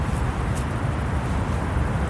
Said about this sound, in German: Straßenlärm, S-Bahn, Ring, Trams, pinkelnde Hunde,